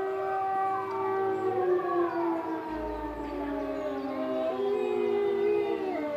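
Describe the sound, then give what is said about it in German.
A wailing fire siren in Austria blends with a pack of wolves howling along, several long overlapping howls gliding up and down in pitch, sustained and steady throughout with no talking. “Hier hören wir ein Rudel Wölfe, das in Österreich eine Feuerwehrsirene anheult.”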